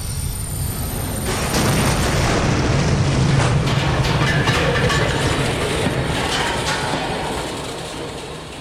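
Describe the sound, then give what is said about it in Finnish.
A train sleeping carriage, thrown by the pressure wave of an explosion, derails, bounces hard over the sleepers and tilts: a loud, sustained roar of rumbling, jolting clatter and heavy low thuds that swells after a second and slowly eases off. No voices. “Vaunu hyppii ratapölkyllä ja kallistuu.”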